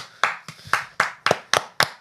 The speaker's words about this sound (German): Juhu! Applaus.